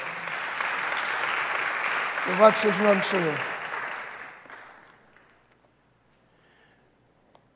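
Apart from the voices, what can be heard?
audience applause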